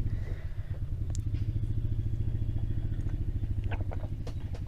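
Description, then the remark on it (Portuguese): A motorcycle engine rumbles steadily in front, a loud low throbbing with rapid regular pulses that holds for the whole stretch, with faint clatter on top and no one talking. “Tem uma moto aqui na frente.”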